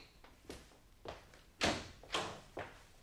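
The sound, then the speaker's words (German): A door is handled and opened for a customer standing outside, with a series of about five muffled thumps and clacks at irregular intervals, with no voices over them. “Nix Dauerklingen, wirst du ja sehen, dass ein Kunde vor der Tür steht.”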